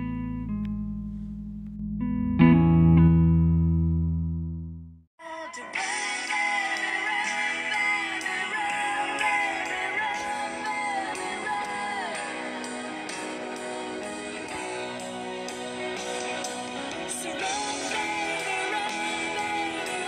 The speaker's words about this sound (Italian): ho voluto farvi ascoltare lo spezzone di questa canzone